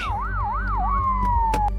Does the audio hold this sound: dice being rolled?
no